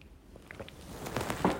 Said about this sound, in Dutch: Sorry, mijn keel doet een klein beetje gek, dus ik neem even een slokje water.